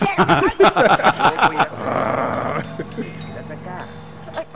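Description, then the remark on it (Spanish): A tiger snarls and growls in a quick run of harsh, rasping bursts, followed by a long breathy exhale and a low rumble fading underneath, loud. “Uy, aparece tigre”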